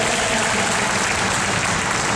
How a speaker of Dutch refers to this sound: Graag een applaus voor dit panel.